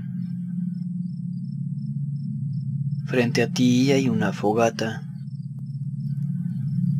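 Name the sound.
night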